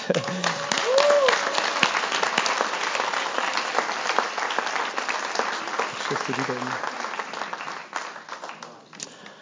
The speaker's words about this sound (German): Und jetzt möchte ich unsere wunderbaren äh, Geschwister nach vorne bitten, die sich entschieden haben für Jesus und die das heute öffentlich bezeugen. Halleluja. Gebt mal einen Applaus.